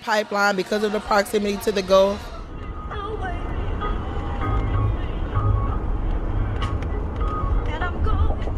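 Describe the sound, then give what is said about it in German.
A car cruises at speed on a highway from Louisiana toward Port Arthur, Texas, its steady low road rumble filling the cabin. A soul and blues radio station plays briefly at the start as its signal weakens, then cuts out, leaving only the continuous engine and tire drone. “Während der Fahrt auf der Autobahn wird das Signal des Soul- und Blues-Radiosenders immer schwächer.”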